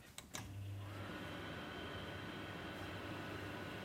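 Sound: microwave oven running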